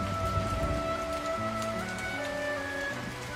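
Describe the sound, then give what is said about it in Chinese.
Steady rain falls at a beach in a continuous, even hiss, with soft sustained musical tones layered over it. No one speaks. “我记得那天我拖你去海滩，而他真的如你所说的下雨了。”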